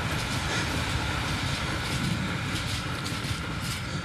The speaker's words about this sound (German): Also so lange waren, so lang waren die Züge nicht zu meiner Jugendzeit.